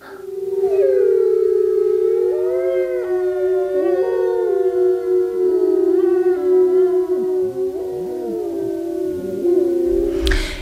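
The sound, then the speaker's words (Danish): A chorus of many wolves howling together, long overlapping wails sliding up and down in pitch, sustained and fairly loud throughout with no speech. “Jeg det er jo en masse ulvehyl.”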